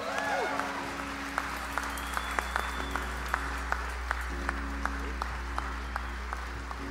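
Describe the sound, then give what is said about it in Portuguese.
A church audience applauds after a prayer at its ninth-anniversary celebration, steadily for several seconds, a dense wash of clapping with sharper individual claps popping out at a fairly regular beat, holding an even loudness over a low steady hum. “Aplauda, Senhor, mais uma vez.”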